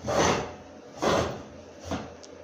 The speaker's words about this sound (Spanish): Ruido de silla en 3, 2, 1.